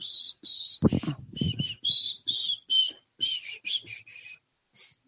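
A man whistles softly, a quiet tune of short, high notes rising and falling in quick phrases, with a brief burst of low rustling and thumps partway through before the whistling fades out.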